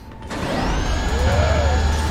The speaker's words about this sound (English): Cannon controls. Alright. We're arming a cannon.